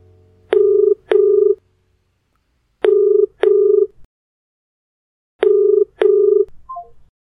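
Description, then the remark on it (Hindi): A telephone ringback tone sounds three times as a woman phones her husband, each a loud, steady double burst separated by short pauses, with no talking, ending in a faint click as the line seems to connect. “कुछ घंटों तन्हाई में अपनी नानी माँ को याद करने के बाद जब उसने फाइनली अपने हस्बैंड को फ़ोन लगाया उसे इस बात का ज़रा भी इल्म नहीं था कि वो एक कॉल उसकी पलटी हुई दुनिया को और पलटाने वाली थी”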